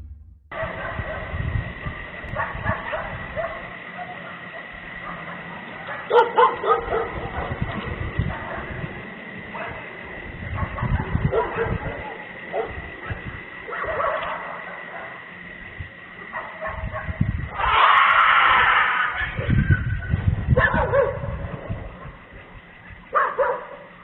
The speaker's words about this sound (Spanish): Para escuchar perros y luego el grito.